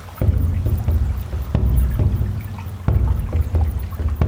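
Steady low rumble of the Hooghly River in India with a boat engine droning, broken by a few dull knocks and splashes; no one speaks.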